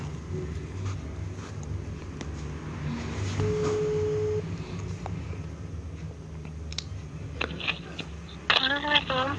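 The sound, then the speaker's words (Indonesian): A phone call to a friend connecting, with one steady ringing tone lasting about a second over a low, rumbling background hum, followed by brief voices near the end. “Oke, kita telepon ya guys. Kita coba saja telepon dengan ….”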